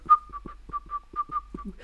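person whistling a tune

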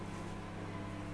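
microwave oven running

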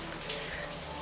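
heavy rain falling

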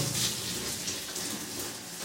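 shower water running

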